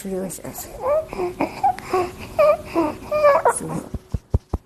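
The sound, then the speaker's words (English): A baby girl makes strained, whimpering noises with labored breaths while bottle feeding, struggling to breathe as she drinks, ending in a few short, sharp gasping gulps. “Those sounds you can hear when she drinks, that's because she really struggles to breathe while drinking.”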